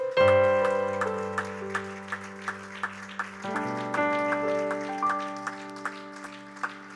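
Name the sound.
audience clapping hands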